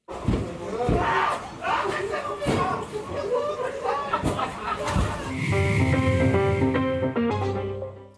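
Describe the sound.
In a video filmed by neighbourhood residents, several sharp, heavy thuds of blows land at irregular intervals while a man screams and other voices shout in a tense, crowded scene, followed by a steadier tonal sound near the end.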